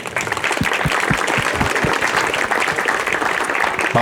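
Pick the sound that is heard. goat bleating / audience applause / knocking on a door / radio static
audience applause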